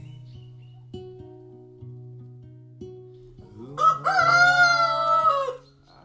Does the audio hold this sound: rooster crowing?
yes